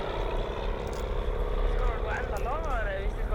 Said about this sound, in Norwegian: festet banner bakpå flyet til støtte for demonstrasjonen. De durer gjennom dalen.